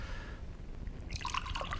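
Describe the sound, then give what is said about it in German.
Water splashes and trickles into a glass over low background hiss, starting softly and turning into a brighter, gurgling pour in the second half. The pouring is fairly quiet. “Geben Sie mir ein Glas Wasser.”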